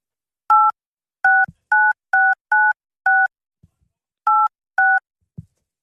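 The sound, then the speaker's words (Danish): Eight clear touch-tone beeps as a mobile phone number is entered again on a keypad, coming in a quick irregular rhythm with a short pause before the last two, plus a few soft button clicks. “please enter the mobile number again.”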